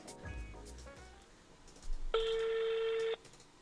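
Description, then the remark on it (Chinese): A mobile phone call to a doctor being placed during a radio show: a few short electronic dialing beeps, then a quiet pause and a single loud, steady ringback tone lasting about a second before it cuts off. “行 拨打一下电话。”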